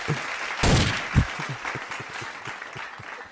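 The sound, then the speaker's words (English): A crowd claps steadily while a couple of loud, sharp bangs like gunshots ring out near the start, and the clapping carries on after them. “a crowd when somebody starts shooting, but niggas just start just keep clapping.”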